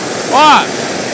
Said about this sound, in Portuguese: Aqui é o seguinte: o balão faz um barulho aqui, a gente tem que respeitar o barulho e não conversar com esse barulho.